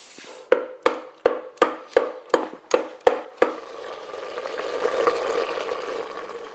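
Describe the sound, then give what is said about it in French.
About ten sharp, evenly spaced thuds of a tool pounding soft cooked giraumon pumpkin into purée by hand, as done in Haiti without electricity, followed by a steady wet sizzling or mashing wash for the last few seconds; no one speaks. “Euh, en Haïti, quand il n'y a pas d'électricité généralement, pour mixer euh, le giromon, on, utilise euh, un truc pour euh, taper dessus jusqu'à ce que ça nous donne euh, la purée qu'on veut.”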